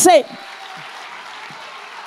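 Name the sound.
audience applauding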